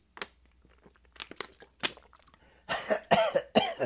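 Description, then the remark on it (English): A few sharp coughs, with a couple of short bursts early on and then a cluster of louder, raspier hacks near the end, no talking alongside. “You have a cough button. I don't. I didn't push.”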